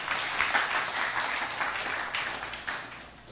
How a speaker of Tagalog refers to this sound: Palakpakan po natin yung Panginoon.